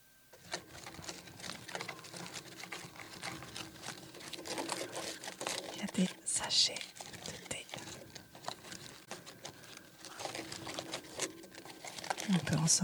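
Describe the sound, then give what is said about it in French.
A small tea box is slowly opened, giving a steady stream of papery crinkling and soft scraping, with a couple of sharper clicks partway through and near the end. “Et alors si je l'ouvre doucement, cette petite boîte à thé, dedans,”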